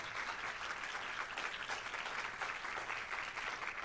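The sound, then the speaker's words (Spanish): An audience applauds the Lord steadily, a dense wash of many hands clapping at once with no pauses, holding an even, fairly loud level for the whole stretch. “La respuesta es, vamos, denle un aplauso fuerte al Señor si se lo va a dar.”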